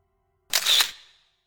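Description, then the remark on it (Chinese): A single crisp camera shutter click as a photographer presses the shutter, a sharp bright snap with a brief mechanical whir trailing off quickly, heard alone with no talking. “相机的快门声之后，刘超就感觉自己的身子猛然间的变小、变瘪，变成了一张照片。”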